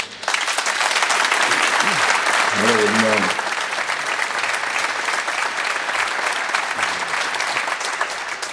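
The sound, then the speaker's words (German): Loud, dense applause from an audience, given as a greeting to Bochum, fills the whole stretch, steady and unbroken, while a man briefly speaks a greeting over it partway through. “und äh, ich glaube mit einem dicken Applaus Hallo sagen nach Bochum.”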